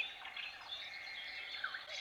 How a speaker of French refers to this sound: Et, et bah, les oiseaux, il y en a qu'on entend autour de la maison aussi.